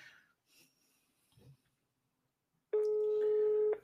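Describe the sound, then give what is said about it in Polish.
A steady electronic phone tone sounds once for about a second, clear, like a ringback while a call connects live on the radio, preceded by faint rustling and a breath. “Zobaczymy, czy odbierze od Krzyżaniaka telefon”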